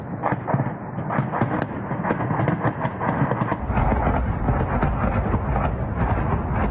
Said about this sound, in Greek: Οι ρωσικές δυνάμεις φυροκοπούν το Χάρκοβο αλήπιτα Σήμερα το πρωί βομβαρδίζεται αστυνομικό τμήμα, ανάμεσα στους στόχους και σχολείο. Αλλά οι εκρήξεις ξεκίνησαν από βραδείς.